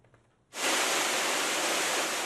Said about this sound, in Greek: Ο τυφώνα Αγκάθα σφυροκοπά τι νότιε μεξικανικέ ακτέ στον Ειρηνικό. Οι καταρακτώδει βροχέ μετατρέπουν του δρόμου σε ποτάμια.